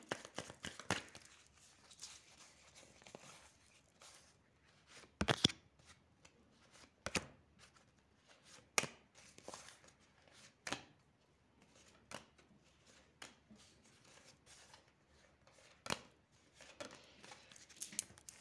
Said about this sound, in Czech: Tak já už míchám karty, dívám se na vaši fotku a mrknem na to.